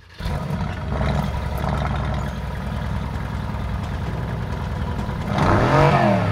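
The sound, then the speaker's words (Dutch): A biturbo car engine with four exhausts catches and settles into a deep, rumbling idle, then revs sharply near the end, its pitch sweeping up and down with a loud roar. No one speaks. “Vier uitlaten. Vier stuks. En inderdaad met de biturbo.”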